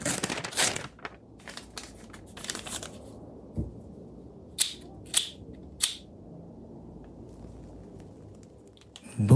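A sheet of paper is destroyed after being read: it is crumpled with a dense burst of crackling and rustling, followed by three sharp, separate tearing rips and a final loud crinkle.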